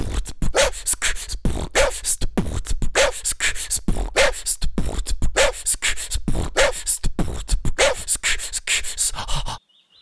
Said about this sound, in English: Here is my dog Cheeky and my beatboxing cat Rory.